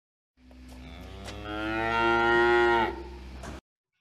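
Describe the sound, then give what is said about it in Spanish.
A single long, loud cow moo, swelling in strength before tapering off with a rough, throaty finish, heard alone with no other voices. The cow is given as an example of cattle livestock. “En las regiones templadas y cálidas existe más ganado vacuno, es decir, de vacas.”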